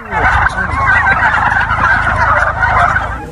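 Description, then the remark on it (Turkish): A dense chorus of many turkeys gobbling continuously on a turkey farm, a loud overlapping clamor of warbling calls with a low mechanical hum underneath, no one speaking. “Yeni yılın yaklaşmasıyla birlikte hindi çiftliklerinde hareketlilik başladı.”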